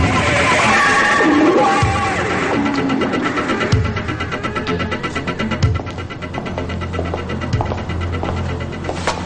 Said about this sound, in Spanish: Mario arranca y se dirige a toda velocidad hacia Luciano